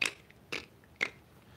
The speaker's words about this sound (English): When my cat's annoyed with me, she walks around with her claws out in the carpet, and you can hear just.